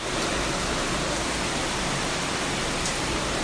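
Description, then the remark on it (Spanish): A heavy rainstorm at night pours down in a steady, dense roar of hiss, loud and unbroken for the whole stretch, with no voices over it. “Así sea en medio de la noche, cuando está cayendo una tormenta y parece el apocalipsis, no pasa nada.”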